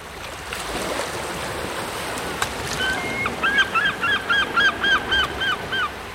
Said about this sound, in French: Les mouettes qui chantent, le bruit des vagues